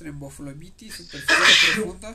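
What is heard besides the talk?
sneeze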